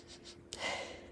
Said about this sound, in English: Um, let me, I gotta do sniff test. I get some of that pine.